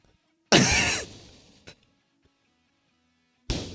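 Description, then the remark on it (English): A voice imitates a loose, sputtering fart: a loud, breathy burst lasting about a second that trails off, a brief pop, then silence before another burst starts at the very end. “No, that's just loose. That's just a loose fart.”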